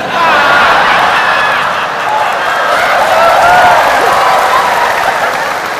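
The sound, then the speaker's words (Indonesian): A large crowd of Brimob police troops cheers and shouts loudly in unison during a religious sermon, a dense wall of many voices that stays strong for the whole few seconds. “ini baru suara berimob kalau di kesatuan lain salatullah berimob bos kencang kenapa kering”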